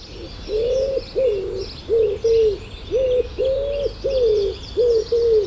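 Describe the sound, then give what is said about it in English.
A wood pigeon's soft, repeated five-note cooing phrases, low and hollow, cycling steadily, with faint birdsong chirping in the background. “And the other one that people know quite a lot is uh, wood pigeons, which they'll see in the gardens or out on farmland or in woodland, and they have five notes, which is do do do do do do do do do do.”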